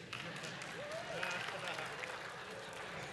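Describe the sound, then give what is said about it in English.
An audience applauds during a sermon in a dense, steady wash of many overlapping claps, sustained at an even level throughout, with a few faint voices and whoops rising over it. “You clap enough, I'll be done by noon today.”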